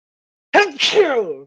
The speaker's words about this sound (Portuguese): Aí espirrou rapé, aí usou rapé, né